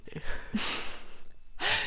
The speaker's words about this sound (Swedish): Ta ett djupt andetag. Och eh, nu har vi ett avsnitt. Nu andas vi